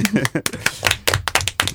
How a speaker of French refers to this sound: je sais pas pourquoi j'applaudis.